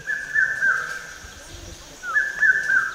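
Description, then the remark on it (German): Sustained, bright bird calls ring out in two long stretches with a brief dip between, over a soft outdoor background in a park with dense trees and many birds, clear with no voices. “Der Park mit seinen dichten Bäumen und den vielen Vögeln ist allein schon ein Erlebnis.”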